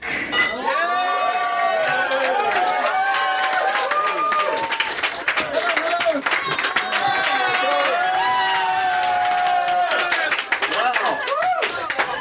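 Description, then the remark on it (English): A crowd claps and cheers steadily for about twelve seconds as a performer is introduced for a routine. Dense, rapid applause mixes with rising whoops and shouts, loud and unbroken throughout. “We've had a good time, and now, without further ado, let's hear it for”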